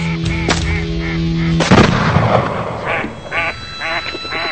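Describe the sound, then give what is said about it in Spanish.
A few loud shotgun blasts ring out, the biggest one echoing, followed by a run of honking, quacking bird calls; no one speaks. “Tirando a las escopetas.”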